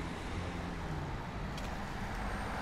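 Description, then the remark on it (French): A steady, dense roar of road traffic passing outside a prison fills the air, a continuous low rumble with wind-like hiss and no single vehicle standing out, with no one talking. “mais avec la circulation ici, c'est pas facile d'échanger euh, la, conversation.”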